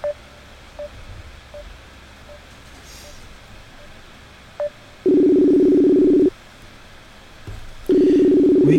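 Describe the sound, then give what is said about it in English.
A few soft, short beeps like keypad presses, then a loud, steady ringback tone on an outgoing phone call: one long ring, a pause, and a second ring starting. “got ringing, and I, I got answers.”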